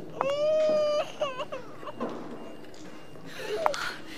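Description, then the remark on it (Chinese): A newborn baby, born a month premature, cries loudly just after birth at a hospital in a long, wailing burst, followed by shorter hiccuping cries and whimpers, then one more sharp high cry at the end. “你听这孩子哭劲儿，肯定是个大胖小子。”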